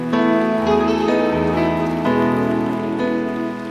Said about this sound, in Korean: 이게 여러분들이 들수 있는 박수의 한계일까요? 더 큰 박수로 영광 올려드립시다.